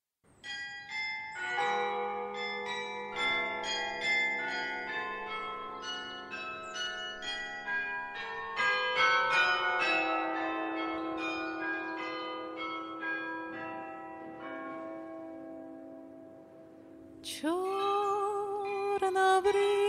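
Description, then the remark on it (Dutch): Historic 17th-century carillon bells are played by the city carillonneur, ringing out a melodic tune over the town and market, many tuned bells struck in quick succession with long overlapping resonance, fairly loud and spacious, with a brighter, harsher bell strike near the end. “Richards bespeelt de historische 17e-eeuwse klokken van de Bijaard.”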